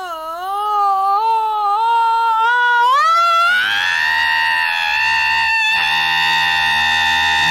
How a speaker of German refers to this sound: Mensch, ein Wecker, der schreit.